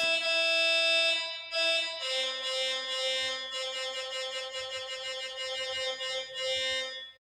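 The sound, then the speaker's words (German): A bright, buzzy self-programmed DSP synthesizer, held directly to the microphone, plays a sequence of sustained harmonic notes with a washy reverb tail, fairly loud and alone, the tones blending and ringing out before stopping abruptly. “Im Grunde genommen ist es ähm, ja, also es ist, es sozusagen ein Synthesizer.”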